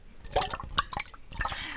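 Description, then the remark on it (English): Water splashes and drips in a quick, irregular burst of wet patters and small pours, lasting under two seconds with no voices. “Oh, du Water Sounds.”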